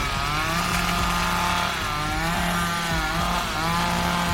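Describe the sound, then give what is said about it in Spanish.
A chainsaw engine, shaken by Leatherface in the 1974 film The Texas Chain Massacre, roars loudly and continuously, its pitch rising and falling in repeated revs as the throttle is worked, with no voices present. “Leatherface agita su motosierra con frustración”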